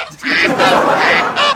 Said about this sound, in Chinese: 还喂上了鸡、鸭、大鹅。